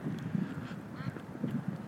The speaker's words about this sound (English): Some ducks.